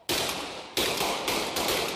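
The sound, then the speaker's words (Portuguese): Gunfire from a shootout: loud, rapid bursts of shots that blur into a harsh, crackling roar, with fresh volleys breaking out every half second or so and no voices. “Tiroteio agora aqui, ó. Todo mundo correndo e as próprias pessoas vão informando, você recebe alertas, você vai desviando ali das trocas de tiro, dos arrastões, ocorrências assim desse tipo.”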